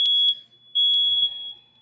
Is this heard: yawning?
no